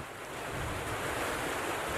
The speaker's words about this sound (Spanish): ya entrando a la ciudad de Córdoba bajo una intensa lluvia torrencial, sigue camino.